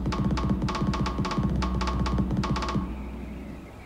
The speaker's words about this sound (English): You're talking to me, aren't you? With the drumming.